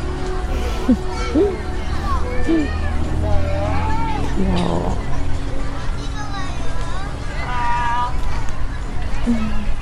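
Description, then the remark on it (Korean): Children run and play outdoors, a steady hubbub of overlapping young voices with high shouts and squeals rising above the chatter for the whole stretch. “요즘은 이런 아이들 뛰어노는 소리를 듣기 쉽지 않은데.”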